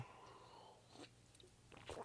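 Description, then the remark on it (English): Quiet mouth noises of someone sipping coffee: a few soft slurping, wet bursts spread over about two seconds, with the last one a little louder, and no talking. “Um, one more sip of coffee and we move into the British mandate.”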